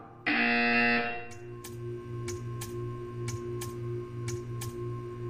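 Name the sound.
buzzer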